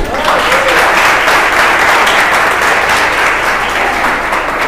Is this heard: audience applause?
yes